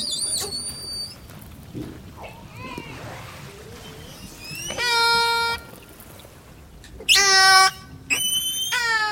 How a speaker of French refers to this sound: Là, on a les sifflements des orques. On a aussi des, clics et des buzz qui sont un peu différents.